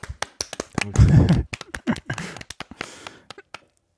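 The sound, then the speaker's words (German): A few seconds of crisp hand clapping celebrating a weight loss of 9.7 kilos, sharp irregular claps with a brief louder burst near the middle, fading out toward the end. “Applaus.”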